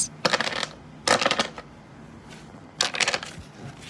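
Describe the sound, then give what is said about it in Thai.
Three quick bursts of crisp, riffling card shuffles, each lasting about half a second with short pauses between, fairly loud with no voices. “That's right, someone is shuffling cards.”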